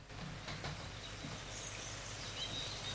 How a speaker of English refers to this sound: Ambient, some nice tree ambience with some birds singing.